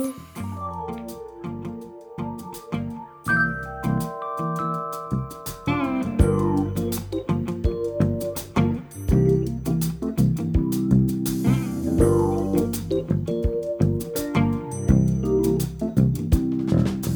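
An upbeat song plays alone, with plucked and sustained instruments building from a sparse opening into a fuller, steady groove with a clear rhythmic pulse.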